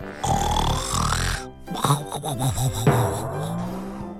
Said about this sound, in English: Afraid of being asked to work again, Greedy Piggy pretended to be sleeping. He snored very loudly.